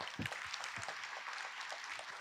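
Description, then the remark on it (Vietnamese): An audience claps steadily throughout, a dense, crackling wash of many hands at moderate loudness, with a few brief low voices or whoops breaking through near the start. “thỉnh thoảng mình phải chém tí cho bà con vỗ tay để mình dò tín hiệu xem bà con thích gì”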